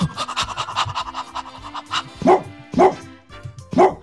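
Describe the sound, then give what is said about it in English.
A person imitates a dog panting, with quick, breathy, rhythmic huffs, followed by three louder voiced bursts spaced about half a second apart. “And they were in the spare bedroom, and the dog came in, and the dog went”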